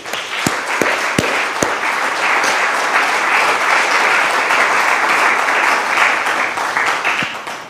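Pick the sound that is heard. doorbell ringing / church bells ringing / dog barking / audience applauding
audience applauding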